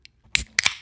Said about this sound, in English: As I'm going to crack this beer open,